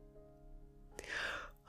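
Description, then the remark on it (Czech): A single breathy yawn voiced by a woman, rising into a drawn-out airy exhale and ending with a short catch of breath, fairly quiet. “Pak se otočila na mladíka a zívla.”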